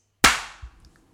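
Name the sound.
hand clap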